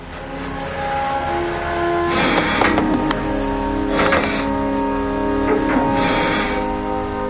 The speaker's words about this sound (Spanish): Los bomberos ponen en marcha un pequeño generador conectado a una tenaza neumática. Con la tenaza cortan la chapa del coche para quitar el techo.